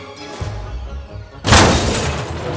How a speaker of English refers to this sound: where a big rig hit him and dragged him, leaving him encased in a pile of twisted metal.